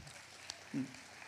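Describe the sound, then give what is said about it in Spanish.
A steady wash of soft audience applause during a talk fills the moment with a dense patter of many hands clapping, plus a brief sharp click and a short low vocal sound. “Gracias por los aplausos porque me dan con eso un segundo para que yo tome agua.”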